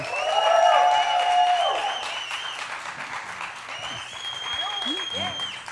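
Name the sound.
audience applauding and cheering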